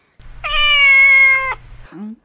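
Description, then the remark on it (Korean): A person imitates a sly cat on a count of one, two, three, with one long, drawn-out nasal meow held for about a second, ending in a short, lower vocal squeak; a low rumble sits underneath. “다음 앙큼 고양이.”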